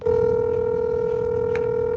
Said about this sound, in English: and called the phone numbers they left with the company. Some numbers weren't valid.